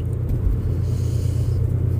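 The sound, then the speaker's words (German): A steady, deep rumble fills the inside of a car as someone sits in it, a continuous low droning hum with no voices, holding at an even, fairly loud level throughout. “während ich hier im Auto sitze, während ich diesen Podcast aufnehme”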